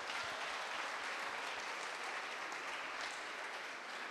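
audience applause

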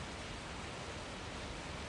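torrential rain

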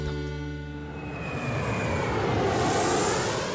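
airplane landing

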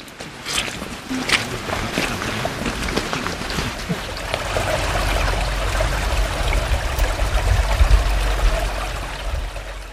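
flowing brook water

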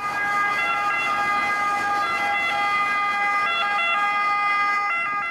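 ambulance siren

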